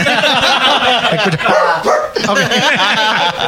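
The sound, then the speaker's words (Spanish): Voices imitate a dog yapping and yelping along with squeaky, horn-like toots, a loud, continuous run of warbling vocal bursts mixed with chuckling laughter. “¿Cómo suena un perro jugando con una corneta?”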